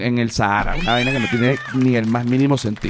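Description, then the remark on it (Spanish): A female Staffordshire terrier lets out high, wailing screams instead of barks, shrill yelps rising and falling while a man keeps talking over the noise. “ella toma este momento para jugar y pegar unos gritos porque además ni siquiera ladra”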